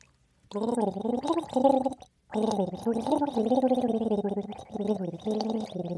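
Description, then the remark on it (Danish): A voice hums a wavering, sing-song melody while gargling water, the tune bubbling and rattling in two long phrases separated by a brief pause. “Lige om lidt vil jeg med vand i munden nynne en sang for jer.”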